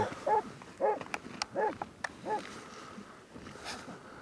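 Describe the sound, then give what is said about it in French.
An avalanche search dog in the snow barks four times in an uneven series, moderately loud, followed by quieter rustling and a few sharp clicks. “chien à bois.”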